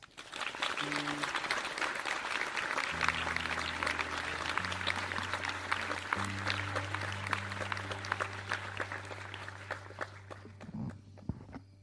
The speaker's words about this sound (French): Notre euh, prochaine participante va nous raconter une histoire très intime qui concerne sa maman. Je vous prie d'applaudir très fort